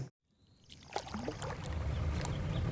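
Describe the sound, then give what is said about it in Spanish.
The motor of a fishing launch carrying eight brigade members on a river hums low and steady on the water, growing a little louder after a brief silence, with light splashing and lapping over the soft rumble. No one speaks. “La lancha se agita sobre el espejo de agua con un ronroneo suave.”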